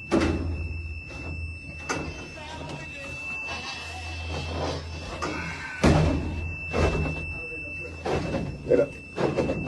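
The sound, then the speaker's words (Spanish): Folding chairs clack and thud open in an irregular series of sharp metallic knocks, some louder than others, while a steady high-pitched alarm tone sounds continuously underneath. “Lo que pasa es que eso es silla. Están abriendo las sillas”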